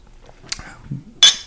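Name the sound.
beer glasses clinking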